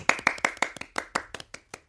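crowd, studio clapping

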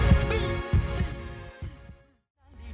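sound effect, heartbeat sound effect

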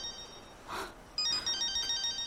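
signal or alarm, phone ringtone

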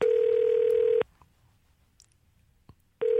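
signal or alarm, telephone dialing tones

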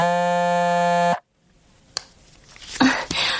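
signal or alarm, telephone ringing

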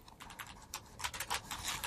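household object, computer keyboard typing

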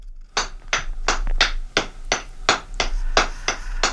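tool, blacksmith hammering metal

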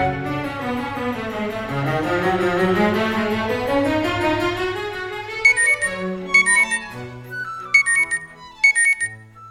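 household object, alarm clock ringing

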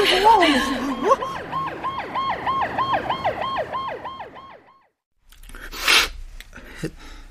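vehicle, ambulance siren

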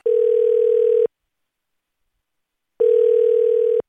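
signal or alarm, telephone ringing

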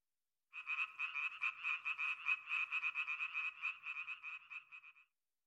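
animal, tree frogs croaking

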